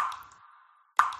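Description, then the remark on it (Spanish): Two water drips from a leaking shower land a second apart, each a bright plop with a ringing tone that fades slowly, with nothing else going on. “Una ducha perdiendo agua suena así.”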